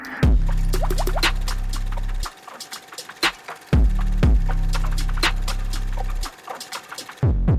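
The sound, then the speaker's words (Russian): White wine glugs into a glass in two separate pours, each lasting about two seconds, with splashy clinks and a short pause between them. Fairly loud, with no voices. “с бокалом неплохого белого вина послушать новый подкаст «Терминальное чтиво»”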